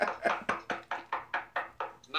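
A quick, steady run of about ten knocks on wood, evenly spaced, each rap sharp with a short decay, ending with a brief extra sound.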